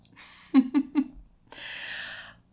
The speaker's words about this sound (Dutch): Hi Dino, daar is de kat weer. Lekker tegen de microfoon aan. Ja, mag iedereen horen hoe jij het knorren bent?